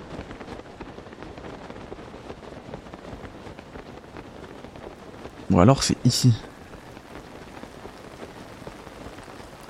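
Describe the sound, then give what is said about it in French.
Steady rain in a video game patters continuously across the whole stretch, a dense hiss of drops on surfaces, with a brief spoken phrase breaking through near the middle. “En plus il pleut, je peux pas grimper.”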